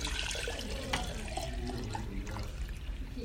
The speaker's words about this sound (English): So if I were to pour this water, if this represents God's hope, okay? If I pour this water into this jar, what's going to happen?